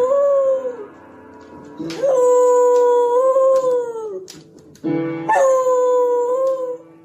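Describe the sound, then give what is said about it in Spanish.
A female dog howls along to piano in two long, wavering phrases, its voice rising and sliding in pitch, loud, with a short gap between the howls. “A ver, espérame, tú, este, escuchemos a la perrita.”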